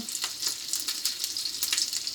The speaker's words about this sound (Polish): No i podpierw sprawdzam sobie pierwszego kotleta, jak on tutaj ładnie się już wysmażył. Ściągam go. Na tej drugiej stronie zwykle krócej się kotlety smażą.